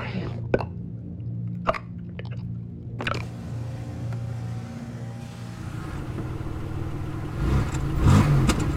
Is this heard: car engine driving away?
yes